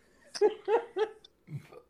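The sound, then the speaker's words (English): A few bursts of close laughter give way to a short, low, guttural burp right up against the microphone, fairly loud and then quickly fading. “Try not to burp into the mic.”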